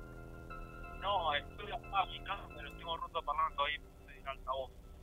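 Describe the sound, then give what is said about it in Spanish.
Garbled, tinny speakerphone voice breaking up over a phone line, choppy and band-limited with a steady hum underneath, speech fragments warbling in short bursts for several seconds. “Estás en altavoz, bueno, no, te escucho muy mal.”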